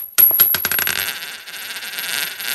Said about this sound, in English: the sweet, supple sounds of a five cent coin was all correct